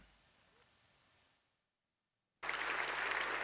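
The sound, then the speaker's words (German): A brief, quiet hiss trails off into silence, then loud, dense applause from a crowd bursts in abruptly and continues steadily. “Applaus, Applaus, danke, danke.”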